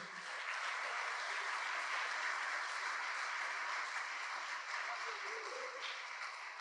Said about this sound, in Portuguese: Você pode dar um forte aplauso ao Senhor Jesus aí?